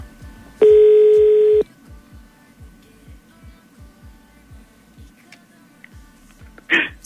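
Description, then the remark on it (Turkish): A phone call being placed: one loud, steady electronic tone lasting about a second, then a quiet stretch of soft, regular low pulses, ending with a short, sharp burst. “Bir dakika ya bir saniye e, aramamız lazım.”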